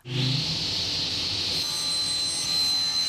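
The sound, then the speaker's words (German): A voice imitates a circular saw with a steady, hissing, high-pitched whine that holds at an even loudness for about three seconds, a thin tone riding on top of the noisy buzz. “Und dann kommen wir zum Schluss doch zur Kreissäge.”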